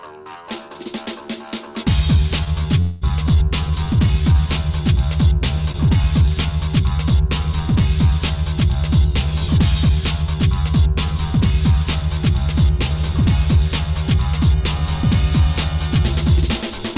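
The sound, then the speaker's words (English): A big beat electronic intro: a brief, quieter opening, then loud, dense music kicks in with heavy sampled breakbeats and a throbbing bass riff that pounds steadily throughout, with no talking. “So let's have a little listen to the, to the intro to "…."”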